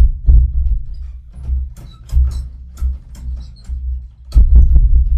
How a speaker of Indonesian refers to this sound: bangsat pintu bangsat kok ada pintu bunyi kayak gitu ya aneh banget ya gaib banget di sini ya agak sedikit. mistis sih agak mistis